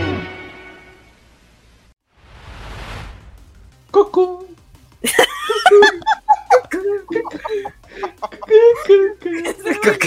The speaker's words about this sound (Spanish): es gallo, ¿qué?